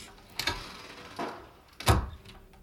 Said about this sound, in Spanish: Cierras la puerta con cuidado detrás de ti.